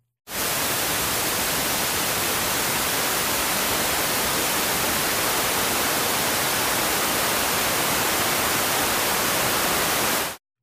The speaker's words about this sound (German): werde ich dir einfach mal das entsprechende Geräusch vorspielen und du wirst sehr schnell wissen, was mit weißem Rauschen oder wie der englische Begriff lautet, White Noise gemeint ist.